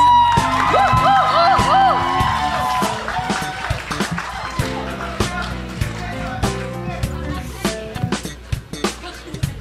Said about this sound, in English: Why don't we give our official new senior pastor a round of applause, please?